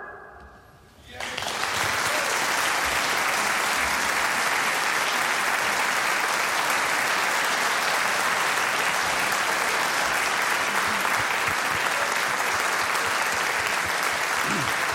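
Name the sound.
audience applause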